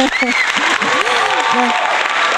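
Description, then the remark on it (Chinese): An audience breaks into steady, dense applause, a continuous wash of clapping that holds level throughout, with a few voices and cheers rising over it. “来 大伙儿 给你掌声。”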